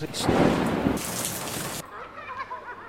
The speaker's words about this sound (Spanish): y ha comenzado el día con lluvia.